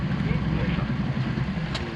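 A boat carrying Federal Police agents sets out from a small port toward indicated spots. Its engine is a steady low rumble with a faint hiss of wind and spray, continuous for the whole stretch.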